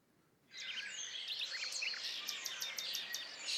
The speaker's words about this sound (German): Hast du gewusst? Oder dich vielleicht gefragt, warum das früh am Morgen die Vögel pfeifen?